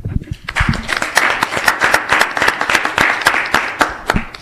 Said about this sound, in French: On va vous remercier sous des sous des applaudissements, s'il vous plaît.